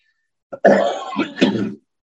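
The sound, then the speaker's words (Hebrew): A single raspy throat clearing from a person with a slight cold, breaking into a short cough, lasting just over a second, with no talking over it. “סליחה, אני מצונן היום קצת, ואני מבקש סליחה לשיעולים באמצע.”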